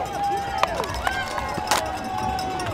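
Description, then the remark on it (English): Marathon runners sprint past a water station, snatching paper water cups and tossing them down, a few sharp crinkly slaps standing out over a steady bustle of footsteps and crowd noise, with a faint sustained tone underneath. “I want to get sound of people dropping them.”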